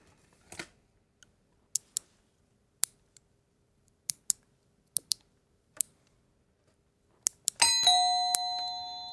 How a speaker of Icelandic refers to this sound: Það verður að klippa táneglur.